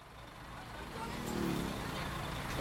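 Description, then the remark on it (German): Busy road traffic of motorcycles and buses rumbles steadily on a street at Siam Square in Bangkok, Thailand, early in the morning, with engines swelling as vehicles rush past and a faint beep rising over the continuous low roar. “Motorräder und Busse rauschen vorbei.”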